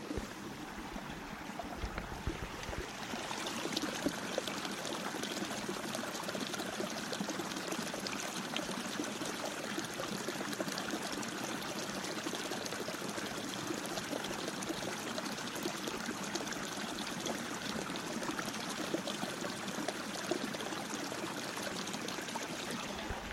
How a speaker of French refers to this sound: Je vais vous faire profiter d'un petit bruit de source dans la montagne. Fermez les yeux et laissez-vous guider. Vous allez voir comme c'est agréable.